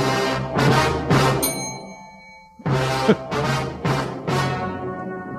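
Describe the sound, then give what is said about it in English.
A bell is struck several times in two quick bursts separated by a short pause, each loud hit ringing out with bright, sustained overtones. “just hit his bell again.”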